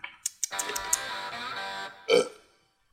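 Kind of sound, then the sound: food or drink, sipping and swallowing water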